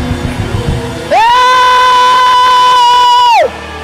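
A worship crowd roars in celebration, shouting and praising the Lord, and a loud, high-pitched scream rises over the din and is held steadily for about two seconds before cutting off, leaving the crowd noise beneath.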